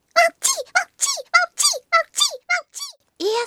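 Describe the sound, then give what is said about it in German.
A rapid run of about a dozen short, squeaky, high-pitched sneezes from a character with hay fever, each with a falling voiced tone, fairly loud, ending in a longer final burst with no talking. “Erst als er mit dem Niesen fertig war, kam heraus, dass er im Gras ein kleines Nickerchen gemacht hatte.”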